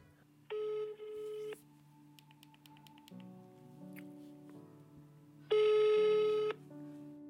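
A telephone rings twice in a line as a call goes unanswered to voicemail, each ring a loud, buzzy harmonic tone of about a second, separated by a long pause filled with a low steady hum and a quick burst of faint dial-tone clicks.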